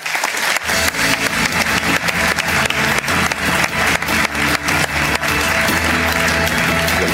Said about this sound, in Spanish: Tony Segarra, un aplauso para él.